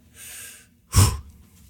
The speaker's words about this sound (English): So Zeke pushes out the doors and he takes a deep breath